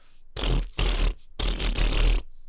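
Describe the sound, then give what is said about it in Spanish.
A voice mimics the distorted, buzzing sound of a fuzz guitar pedal with four loud, raspy buzzing bursts in a quick riff-like rhythm, with short gaps between them. “No sé cómo explicarlo muy bien, el, el porque es una distorsión. Es como un zumbido.”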